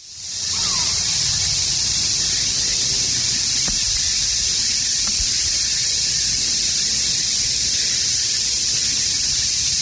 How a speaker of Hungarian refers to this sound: Szóval, hogy ilyen hullámokba jön, hogy néha így, így föl Igen. lelkesednek ezek a kabócák, jobban, jobban hegyezik, aztán utána lejjebb megy, és tényleg így, így, így egymást hergelik, vagy nem tudom, vagy ez egy ilyen kommunikációs dolog